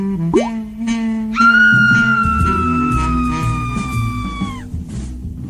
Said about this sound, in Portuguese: Pôde ver então sua irmã mais velha em cima de uma cadeira. A irmã olhava para o lado e deu mais um grito horripilante